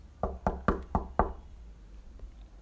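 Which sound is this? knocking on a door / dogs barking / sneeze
knocking on a door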